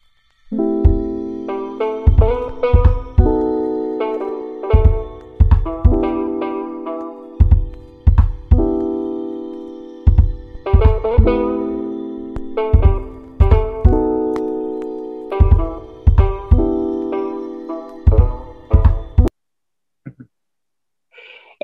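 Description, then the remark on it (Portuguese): A short instrumental intro jingle with sustained melodic chords over a steady, punchy beat, playing loud and clear for about nineteen seconds before stopping abruptly. No voices. “Toca a musiquinha.”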